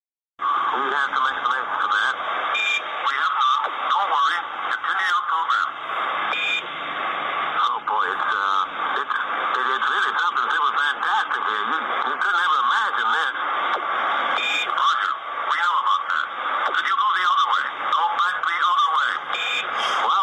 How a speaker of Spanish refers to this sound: Tal vez sea mentira, pero sí sentí la necesidad de compartírselo a ustedes. no, es la, es la grabación donde supuestamente supuestamente interceptaron una, una, un audio alienígena o algo así.